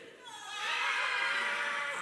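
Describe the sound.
An audience, asked to show how screaming in terror sounds, lets out a sustained, high-pitched collective scream that swells within the first half-second and holds loudly to the end, sounding playful rather than truly frightened.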